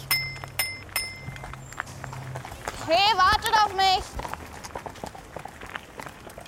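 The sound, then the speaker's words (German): Police mounted-unit horses, ridden by officers, clip-clop in a steady, uneven rhythm on hard ground, while a person calls out loudly partway through and the hoofbeats continue afterward. “Ich radel also der Reiterstaffel auf ihren Pferden hinterher.”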